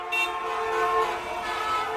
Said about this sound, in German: Laut ist es auch, wenn im Verkehr gehupt wird.